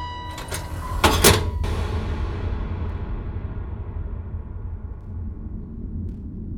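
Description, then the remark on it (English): A city worker swings a heavy metal door shut: a short scrape, then a loud, booming slam, followed by a deep reverberant rumble that slowly fades. “the city worker reached past Tom and swung the heavy metal door in front of him”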